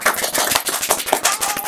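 A burst of steady applause, many hands clapping in a dense, crackling patter that holds at an even, fairly loud level throughout, with no voices over it.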